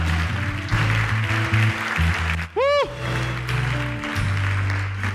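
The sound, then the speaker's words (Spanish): An audience applauds God in a steady, dense clatter of clapping over low sustained music and voices, with one brief wavering high cry rising out of the crowd midway. “Dele un aplauso a Dios el que lo crea.”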